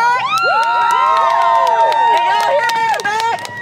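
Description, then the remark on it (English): A crowd of about a hundred people at a rally outside Fulbright Dining Hall at the University of Arkansas cheers and shouts loudly, many overlapping voices whooping and yelling at once in a sustained, energetic roar with sharp claps and calls cutting through. “rallies the hundred or so people who have gathered outside Fulbright Dining Hall.”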